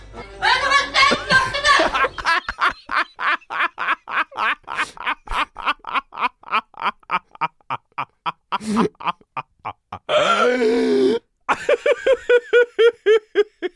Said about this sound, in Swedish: Alex Schumanns nästa bok läses upp av papegojan, grön ara-papegojan från liksom Tomelilla eller någonting. Hur kastade ni fram den här? Ja, vi såg den på TikTok och kände, fan vad lättydlig den är. Man hör ju exakt.